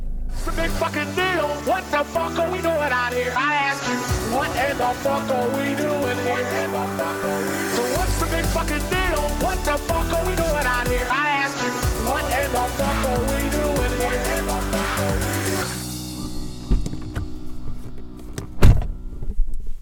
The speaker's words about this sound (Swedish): Han har också köpt en ny, eller leasat en ny. Så att eh, ni ska i alla fall få lyssna lite på motorljudet här.